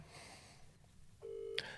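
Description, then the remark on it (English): Phone dialing tones during an outgoing call to a person who is not picking up: a steady electronic beep that jumps to a higher, brighter tone near the end, clear, with no talking over it. “I've called so many people and no one's picking up.”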